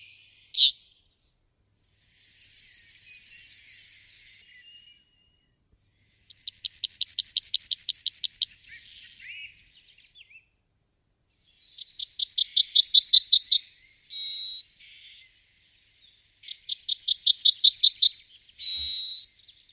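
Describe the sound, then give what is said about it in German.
A yellowhammer sings four clear phrases, each a fast run of bright repeated chirps ending in a drawn-out note, spaced a few seconds apart and heard alone without talk. “genau, also wir haben jetzt die Goldammer gehört.”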